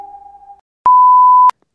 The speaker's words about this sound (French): Après le bip, c'est à vous.